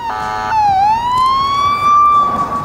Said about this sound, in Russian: Освобождается такой широченный коридор. И по этому коридору скорая несется прямо мне в... ну, прямо на меня